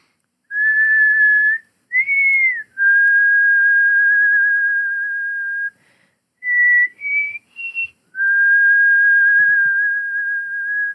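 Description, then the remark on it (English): A clear human whistle carries a slow melody, with long sustained notes broken by short rising phrases and brief pauses, alone with no talking. “you can hear a little um, the one of the melody lines which … whistles”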